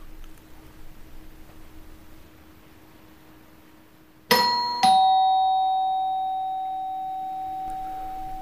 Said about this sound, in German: Und dann klingelt es.